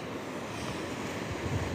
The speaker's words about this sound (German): Und dann wird es türkisblau. Und Die Wellen rauschen, ihr hört es sicherlich.